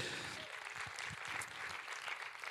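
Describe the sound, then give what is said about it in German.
An audience claps steadily for a family the speaker has just welcomed, a dense crackle of many hands that stays fairly even in loudness throughout, with no voices standing out above it. “Gebt mal einen Applaus für sie.”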